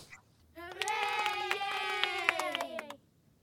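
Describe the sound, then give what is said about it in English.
A short canned crowd applause effect: scattered hand claps under a sustained, cheering voice-like tone, lasting about two and a half seconds before cutting off abruptly. “Here's what the crowd thinks, Ed.”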